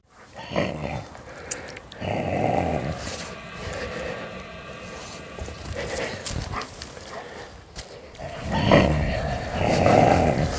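Low, rumbling dog growls come in several drawn-out bursts, loudest near the start and again toward the end, over a steady background hum with no one talking.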